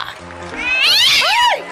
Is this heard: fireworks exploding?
no